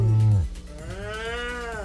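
A cow moos once, a loud, low bellow that starts deep and strong, then rises into a drawn-out, wavering higher-pitched moan that fades slightly at the end.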